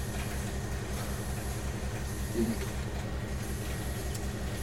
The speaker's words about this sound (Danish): Men er det, jeg undskyld, er det, er det blæser, det der, du har, du har øh, til at køre? Det er godt nok højt, da.